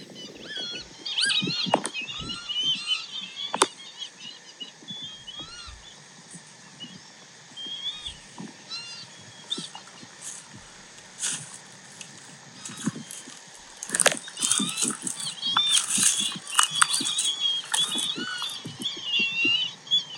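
A dense chorus of wild bird calls recorded at Shijiu Lake and played back on a phone: nasal, bleating cries like a lamb, also like a squeaky rubber duck, overlapping and repeating, growing louder and busier toward the end, with no one talking.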